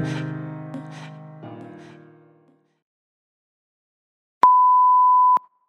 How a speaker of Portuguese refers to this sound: Deixa eu voltar aqui, porque o alarme tocou.